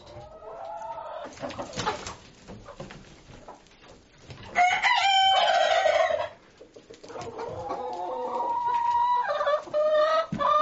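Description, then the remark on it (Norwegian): Several chickens cluck and squawk together inside a henhouse in a busy, overlapping chorus, with a loud burst of raspy, high calls in the middle and steady murmuring clucks before and after. “Uh, så derfor har de nedsatt eggproduksjonen i tillegg til stresset med flytting og alt mulig sånn noe.”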